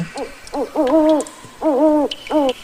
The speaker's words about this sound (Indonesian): Ujar burung hantu salju.